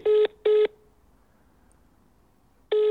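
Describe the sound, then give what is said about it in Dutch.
Telephone line tones as a call is transferred to the right customer service department of Perfetti van Melle: two short, buzzy beeps in quick succession, a pause of about two seconds, then a third identical beep, steady and fairly loud with no talking. “zal er eventjes doorverbinden hoor, naar de juiste afdeling.”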